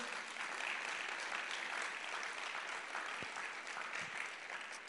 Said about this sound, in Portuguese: Dá um glória a Deus aí. Aplauda o Senhor, Ele é digno.